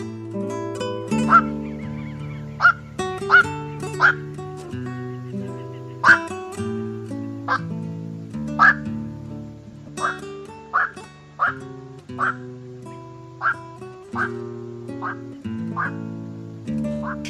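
A night heron gives a long series of harsh, croaking "kwok" calls, loud and abrupt, roughly one each second, over a soft, steady musical backing.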